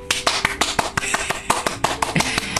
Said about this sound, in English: But um, first of all, let's take a moment. Let's all take a moment to give a hand clap to my sister for becoming a doula.